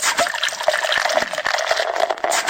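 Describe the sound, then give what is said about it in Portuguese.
A cold beer, opened on a Friday, being poured steadily into a glass, a continuous fizzy liquid rush with small crackling pops throughout, no voices. “bota aquela gelada na mesa. Hoje é sexta-feira. Abre umas quatro aí”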